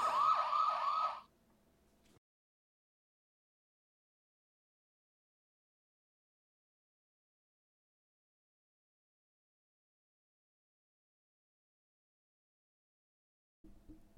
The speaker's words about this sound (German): Das ist ein Glas übrigens. Oh, das zieht ewig lange, ne? Aber es hat einen sehr vollmundigeren Sound als der Rest. Vollmundiger.